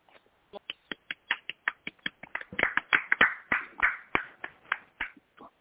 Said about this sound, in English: But y'all showed up and showed out, so I just want to give a little round of applause to our friend